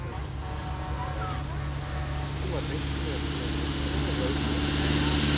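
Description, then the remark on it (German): The first tractor's engine rumbles with a steady, deep droning hum, growing gradually louder as it approaches, with faint voices murmuring in the background. “Nee, das ist der erste Trecker. Hört sich an wie ein Trecker.”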